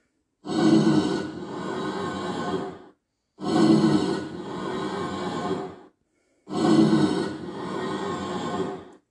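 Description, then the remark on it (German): A Minecraft Blaze's breathing, crackling sound plays three times in a row, each a loud, raspy burst of about two seconds with short silent gaps between, and no talking over it. “Und ich nochmal das Geräusch der Lohe zum Mitschreiben bzw. mit Hören.”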